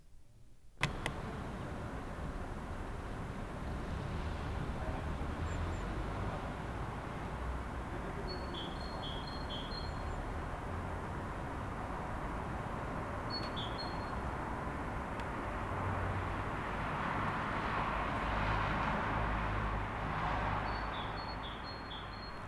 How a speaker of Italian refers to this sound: Resti da sola a casa e spesso ti affacci alla finestra registri il suono degli uccelli, delle voci e poche macchine lontane. Non avevi mai sentito Milano così silenziosa.